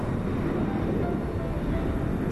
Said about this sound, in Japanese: 赤い飛行機がふわっと宙に浮いた爆音はいつも遅れてやってくる